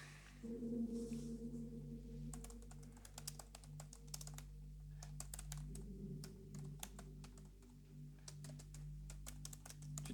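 Rapid, irregular clicking of keys on a computer keyboard, fairly quiet, with bursts and short pauses over a low steady hum; no one speaks.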